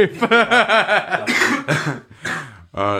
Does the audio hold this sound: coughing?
yes